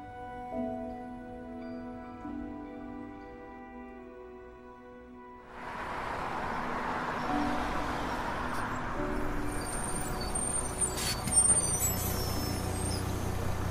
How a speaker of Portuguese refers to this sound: Agora vamos, pai é nosso ônibus.